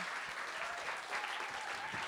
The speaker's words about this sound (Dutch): Nog één keer een dagelijks applaus voor Hamed Amsterdam.